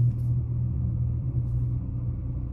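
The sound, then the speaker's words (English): A steady, low rumble fills the cabin of a moving car in which people are recording, a constant engine and road drone with no speech, holding an even level throughout. “Um, but yeah, we're recording in this car, right?”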